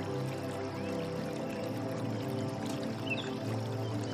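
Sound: small stream flowing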